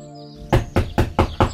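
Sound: knocking on a door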